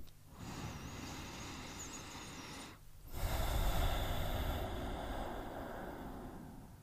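A deep breath: a long, steady inhale, a brief pause, then a fuller, louder exhale rushing out for several seconds. No one speaks.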